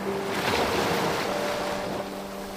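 Ocean waves wash steadily onto a beach, a continuous broad hiss of surf swelling slightly and easing off. Wind sits faintly in the background, and there are no voices.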